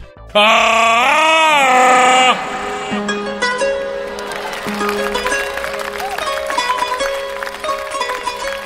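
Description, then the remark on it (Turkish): Soft romantic background music opens with a long, wavering note full of vibrato, then flows into a steady, layered melody that continues at an even, moderate volume with no one talking. “Romans bir fon alayım.”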